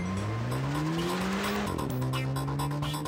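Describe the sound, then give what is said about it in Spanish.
A blue Corvette sports car's engine revs hard and climbs in pitch, dips briefly at a gear shift, then roars upward again, loud with a hint of tire squeal, as a valet parking attendant takes it for a spin and floors the accelerator. “Un ballet parking se llevó un Corvette a dar la vuelta y le pisó duro al acelerador.”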